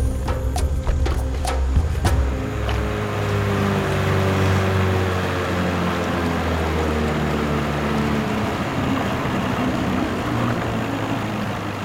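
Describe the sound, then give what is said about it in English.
A motorboat engine on the Amazon River drones steadily for the whole stretch, its low hum mixed with rushing water and wind noise, with a few sharp clicks near the start. “our boat driver, uh, right in the middle of the Amazon.”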